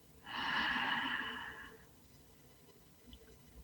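A single deep breath drawn in through the nose during a guided breathing exercise, a soft airy hiss lasting about a second and a half, fairly quiet, followed by near silence.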